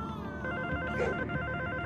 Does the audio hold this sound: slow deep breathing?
no